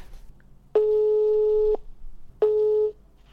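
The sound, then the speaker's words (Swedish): A phone line's ringing tone on an outgoing call: two steady, buzzy electronic tone bursts, the first about a second long and the second shorter, fairly loud with no one speaking. “nu ringer vi honom.”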